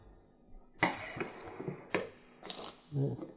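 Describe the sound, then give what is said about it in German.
A knife chops raisins on a cutting board: about five sharp, irregular knocks, each with a brief crisp scrape as the blade comes down, fairly loud against a quiet background. “Und Rosinen, die schneide ich mal eben.”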